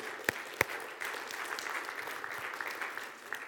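An audience gives the Lord a hand clap for the new year, opening with two sharp, separate claps before a steady wash of many hands clapping together at a moderate level, with a few stray louder claps near the end.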